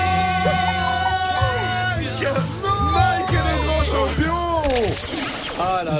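Several voices shout and yell at once during a race at a swimming pool, overlapping and echoing steadily throughout, with a sudden bright burst of splashy noise near the end.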